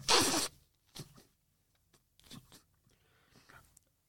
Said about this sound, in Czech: Já se si vysmrkám, jo.